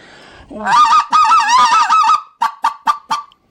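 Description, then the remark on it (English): A specklebelly goose call, wide open with a set of 5/8-inch guts, is blown loud: a long warbling, yodeling run of notes, then four short, sharp clucks in quick succession, with no talking. “Our spec call is real wide open. It's got a set of our 5 8 inch guts, and it's super easy call to run.”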